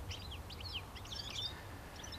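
A European goldfinch twitters in quick, liquid bursts of high chirps and trills over a steady low rumble of background noise; no voices.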